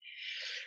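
A single sneeze, a breathy burst lasting under a second, with a hissy airy rush that swells quickly and fades out, with no talking over it.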